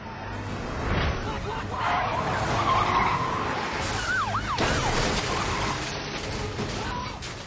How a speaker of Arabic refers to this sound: في فيلم ايجل اي نشوف مشهد في سيارات الشرطه تلاحق البطل وسط ساحه خرده في نفس الوقت يشوف أن الرافعات في هذا المكان يتم التحكم فيها عن بعد عشان تعيق سيارات الشرطة